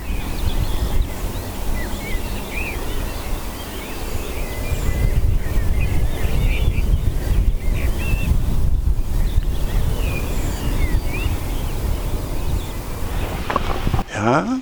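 Wind gusts buffet the microphone with a low, rumbling roar that swells after a few seconds and keeps blustering steadily, while faint bird chirps flicker in the background.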